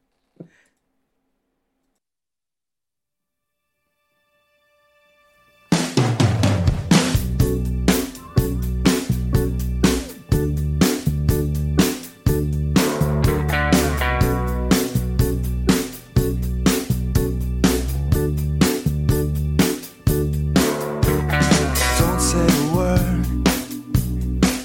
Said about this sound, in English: Let's hear that song. Oh, I love it.